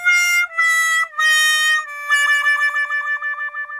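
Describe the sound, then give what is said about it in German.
A comic 'loser' fanfare: three short descending brass-like notes, then a long wobbling final note, like a sad trombone. It plays loud, with no one talking. “Wenn du möchtest, ich, ich mache jetzt irgendeinen rein, der vielleicht auch gar nicht passt. Ja, vielleicht eine Loser-Fanfare oder so.”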